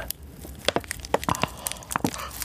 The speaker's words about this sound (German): Und dann nehmen sie oben so Sachen, so Gegenstände in die Hand. Zum Beispiel meine eine Wasserflasche.